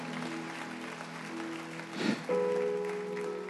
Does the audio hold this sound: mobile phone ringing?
no